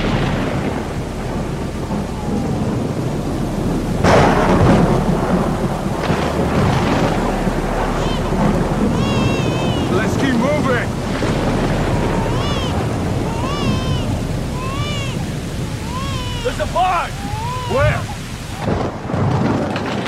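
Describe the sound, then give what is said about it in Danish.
Loud, continuous storm on a TV soundtrack, thunderclaps laid onto the track one after another, rumbling and cracking again and again with no pause, over a dense wash of rain-like noise and some faint voice-like sounds. “Så der var en, der bare har siddet og tonset det ene tordenskrald efter det andet ind på track.”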